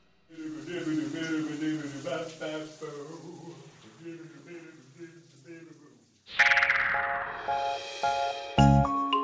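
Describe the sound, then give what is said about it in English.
A lone voice scat-sings quick, bouncy nonsense syllables in a jazzy, shifting melody for about six seconds, then bright chiming dings ring out loudly to close. “Scatting is a type of singing that jazz singers do, where they use nonsense words to make up the song as they go.”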